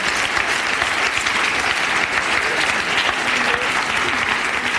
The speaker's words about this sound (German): Herzlich willkommen denen zwei, geben ihnen doch einen Applaus auch.